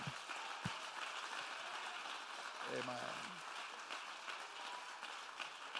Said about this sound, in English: Oh, come on, let's clap our hands and praise Him.